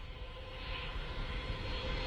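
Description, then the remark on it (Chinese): An airplane landing at Vancouver International Airport after a flight of more than ten hours: a steady, continuous jet roar with deep rumble and airy hiss, swelling slightly in loudness over a couple of seconds, with no voices. “经过十多个小时的长途飞行，飞机终于降落在温哥华国际机场。”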